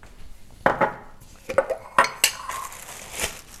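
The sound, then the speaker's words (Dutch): Several sharp clinks and knocks of glass jars and utensils being handled on a counter as jars of peanut butter and apple syrup are taken out, in a quick irregular series with brief pauses between. “Ik ga pindakaas pakken, zoals ik al zei, en uh, eh, appelstrop.”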